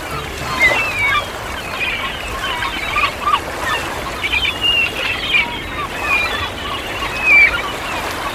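Seagulls cry and squawk repeatedly in the sky over the sea, above a steady wash of sea and wind, their overlapping calls rising and falling throughout.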